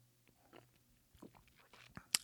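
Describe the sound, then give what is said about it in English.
Quiet sipping of Buffalo Trace whiskey on ice, with one large cube, from a Chicago glass: a few soft, wet mouth and slurp sounds over a low hum, ending in a sharp little clink like ice against glass. No one speaks. “And here is a live sip on the air, first time.”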